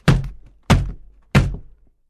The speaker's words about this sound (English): Poole hit the door of the laboratory with the axe.